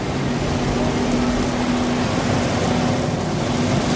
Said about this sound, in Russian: Хоккейная площадка. По ней медленно едет машина для заливки льда.